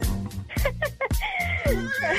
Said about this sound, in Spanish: en lugar de las mañanitas le vamos a dedicar un relinchido a tu marido entonces, Maggie.